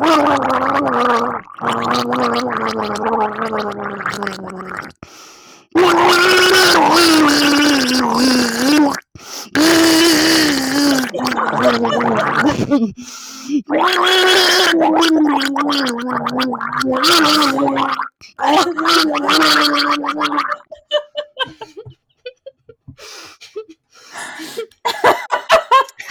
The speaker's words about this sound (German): ich habe noch nie jemanden so inbrünstig gurgeln hören wie dich gerade. Äh, man hat es sehr gut erkannt.